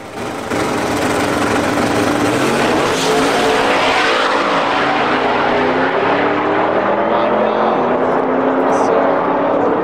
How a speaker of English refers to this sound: So that was violent. So let's fast forward because that is this truck right here. This truck is like a legit four second eighth mile truck. I think it's like a 670 or a 660 truck.